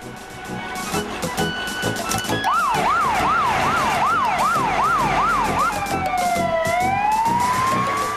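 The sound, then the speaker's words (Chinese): A loud fire engine siren whoops in a fast rising-and-falling pattern about eight times, then shifts to one long tone that dips and climbs again, over a steady rumbling background, as the fire crew heads out to rescue a boy trapped below a quarry cliff. “是谁呼叫了消防队？”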